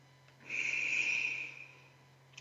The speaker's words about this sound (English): let's take a deep breath in through your nose, out through your mouth like through a straw. Wonderful. Keep breathing in through your nose